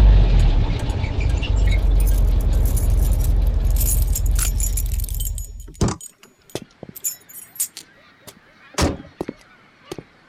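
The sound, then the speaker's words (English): A car pulls into a gas station, its engine rumbling for several seconds, then shuts off, followed by a scatter of sharp clicks and keys jangling in the quiet. “I pulled in there about a week later.”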